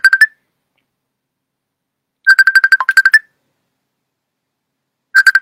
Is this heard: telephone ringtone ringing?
yes